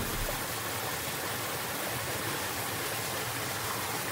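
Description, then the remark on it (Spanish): The Cauca River flows steadily with a continuous, even rush of water, moderately loud, holding constant without pauses or voices for the whole stretch. “En aquel momento el río, que había estado escuchando todo con atención desde una de sus orillas, exclamó.”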